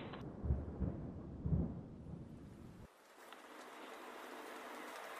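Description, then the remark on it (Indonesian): Deep rumbling thunder rolls through the first three seconds, then gives way to a steady hiss of rainfall that continues to the end, with no one speaking. “Gue dibantuin sama teman gue namanya hujan.”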